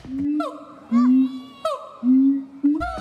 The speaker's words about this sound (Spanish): ¿Has escuchado hablar de los gibones de Siamang? Se trata de un tipo de primate conocido por su peculiar canto.